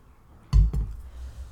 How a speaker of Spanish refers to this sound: A ver, voy a tomar un traguito de agua y un traguito de café.